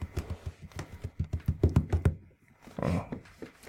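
knocking on a door

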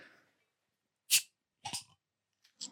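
beer bottle being opened

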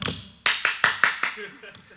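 hand clapping

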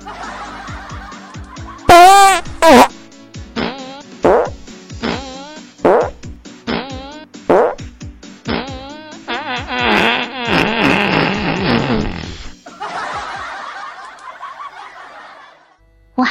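loud fart

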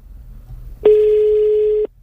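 telephone ringing tone

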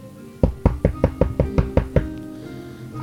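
knocking on a door

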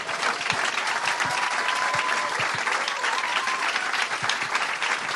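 audience applause

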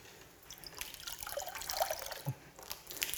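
water pouring and dripping

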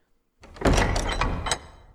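doors closing

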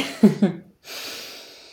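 yawning

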